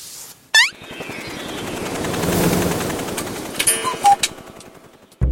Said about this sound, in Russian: И вдруг, прямо посреди улицы, появляются большие часы с маятником.